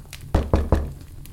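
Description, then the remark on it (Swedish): Three firm knocks on a wooden farmhouse door on Christmas Eve evening, in a steady rhythm and fairly loud, with a quiet pause afterward and no voices. “Och då knackade det plötsligt på dörren.”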